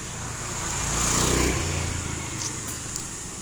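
A car engine hums steadily as the vehicle drives along, its broad rumble swelling briefly at about one second before settling into a continuous road noise with no voices.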